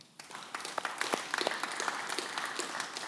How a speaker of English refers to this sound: So let's give them a round of applause too.